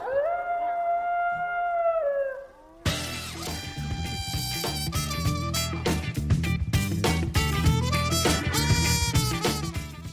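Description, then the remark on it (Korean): A wolf howls in a long, rising and wavering cry lasting about three seconds, then the sound cuts abruptly to a loud, dense burst of music-like noise that continues to the end. “우리나라 산에 늑대가 있어요?”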